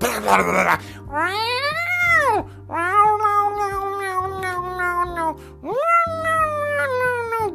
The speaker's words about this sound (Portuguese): Cara, que merda é essa, velho? Chama o exorcista, porra. O bagulho incomoda pra caralho. Os caras dão. Os gatos dão umas. Dá umas porrada, velho, no telhado, velho.